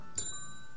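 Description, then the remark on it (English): A single bright bell strike rings out clearly, its metallic tone sustaining and slowly fading over the rest of the short moment, with no talking. “You really like your bells.”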